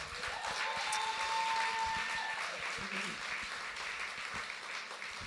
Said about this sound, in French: Merci, merci vraiment à tout le monde. Euh, on peut se donner une bonne main d'applaudissement, je pense. Là.